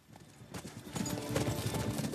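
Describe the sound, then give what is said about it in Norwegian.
Horse hooves clip-clop in a steady, fairly quick rhythm, growing louder after a quiet start, with a busy background of other sound and no clear talking. “Det handler om jenter og hester i filmen 'Til siste hinder'.”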